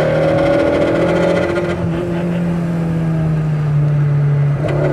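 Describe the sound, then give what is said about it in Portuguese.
A loud, out-of-tune car engine rumbles steadily for the whole stretch, its pitch drifting slowly downward with a slight uneven roughness as it idles high. No voices are heard. “Diz que ele tá desregulado, hein? Tá sem acerto esse carro.”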